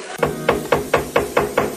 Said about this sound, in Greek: Κάποιος χτυπάει την πόρτα. Ποιος, ποιος είναι.